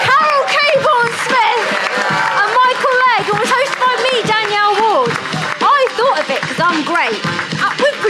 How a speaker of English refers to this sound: keep clapping, for fuck's sake.